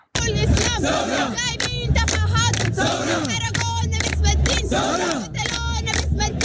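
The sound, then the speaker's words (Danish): Ala Salah, a 22-year-old woman who became the symbol of the peaceful revolution, leads a rhythmic protest chant demanding that dictator Omar al-Bashir step down. A large crowd answers back in loud unison, and the call-and-response repeats steadily over a dense, roaring backdrop of many voices. “Det her, det er Ala Salah, hun var 22 år, en ung kvinde på det tidspunkt, som ligesom blev symbolet på øh, den fredelige revolution, der var for to år siden, hvor, hvor folket jo altså krævede, at øh, diktatoren Omar al-Bashir øh, gik af.”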